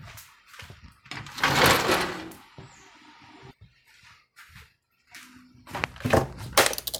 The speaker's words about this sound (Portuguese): Está chovendo. chovendo, só um pouco. Fechar essa janela.